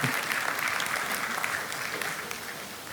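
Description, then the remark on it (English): A crowd applauds steadily for a few seconds, a dense wash of many hands clapping at once, holding fairly even in loudness and easing slightly toward the end. “Yeah, you can clap.”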